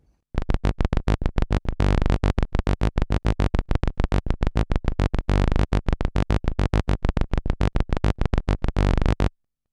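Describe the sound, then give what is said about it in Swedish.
A buzzy synth bass, a sawtooth with a square sub-oscillator, plays a fast, steady run of short, loud, harmonically rich low notes for about nine seconds with no voices. “Och då börjar vi ju drabbas av en liten knarrighet som dyker upp eftersom det är så alltså låga toner nu så att man hör liksom inte någon direkt kropp utan man, eftersom det är sågtand och plus en låg fyrkant och så är det massa kanter i vågformen”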